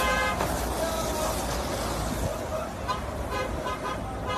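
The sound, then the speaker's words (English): Busy road traffic with a car horn tooting in short bursts as a car chases someone away from a fast-food drive-through, over a constant engine roar, loud, with faint voices mixed in. “That's so funny that the car chasing him.”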